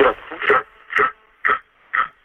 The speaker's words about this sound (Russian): А, Фонит, пожалуйста, отойдите от приемника подальше.